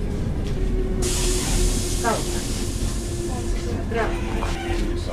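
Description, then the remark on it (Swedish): Inside a local commuter train in Helsinki on an early June afternoon: a steady low rumble with a droning hum, a rushing hiss that swells after the first second, and faint murmured voices in the background. “En eftermiddag i början av juni stiger jag på lokaltåget i Helsingfors”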